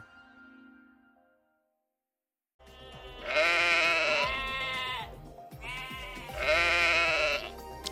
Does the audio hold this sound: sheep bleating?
yes